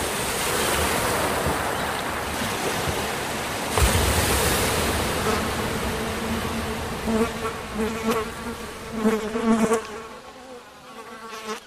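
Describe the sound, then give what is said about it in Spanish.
A steady, breathy wash of sea surf swells and recedes, with a fly buzzing over it, its drone growing more prominent toward the end. “Aliento inmenso de la mar.”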